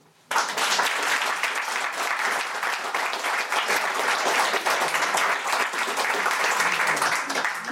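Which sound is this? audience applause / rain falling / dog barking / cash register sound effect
audience applause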